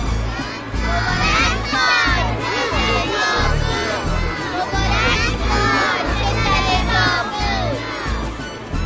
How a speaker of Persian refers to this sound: سران کاهنان و ملایان یهود وقتی معجزات بزرگ عیسی را دیدند و شنیدند که کودکان در معبد فریاد میزدند